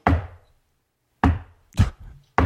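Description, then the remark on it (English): Four slow, heavy knocks on a solid surface, loud, each thud ringing briefly before the next, with long deliberate pauses between the first two and no voices. “If there, it's if it's a deliberate, slow,”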